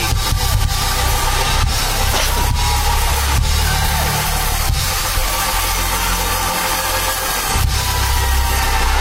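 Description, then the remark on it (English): A church audience claps steadily and loudly for several seconds, giving Jesus five seconds of hand clap, a dense wash of many hands with a few sharper accents. No voices stand out, and a low rumble runs underneath. “Can you give my Jesus five seconds of hand clap and pray?”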